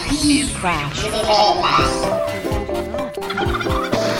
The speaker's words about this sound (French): Alors bonjour et aujourd'hui qu'est-ce qu'on a amené On a amené un poulet.